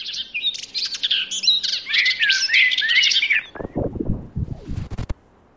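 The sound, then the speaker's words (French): Small birds chirp outdoors in a dense, high, twittering chorus for several seconds, fairly loud, followed by a few rougher bursts before the sound cuts off abruptly. “on les étouffe en envoyant le fameux contre-bruit inverse via des haut-parleurs, ce qui va atténuer les sirènes, les bruits de circulation, même les petits oiseaux s'ils crient trop fort.”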